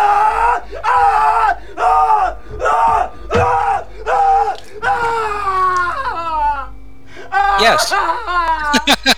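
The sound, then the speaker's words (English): A person imitates screaming: a rapid run of about seven loud, strained yelling bursts, then a drawn-out wail that breaks into high, rising shrieks near the end. Forceful. “has somebody like that screaming?”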